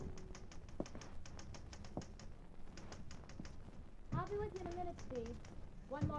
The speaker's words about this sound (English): One night, Laurie was typing a story in her room, and I was in the living room waiting for her to finish.